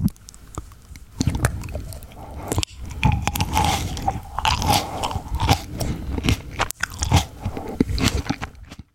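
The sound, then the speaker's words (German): Close-up, wet crunching as someone bites into and chews a snack tomato, a steady run of juicy squelches and crisp bites lasting several seconds with no talking. “das, ist, das ist tatsächlich eine Snacktomate gewesen.”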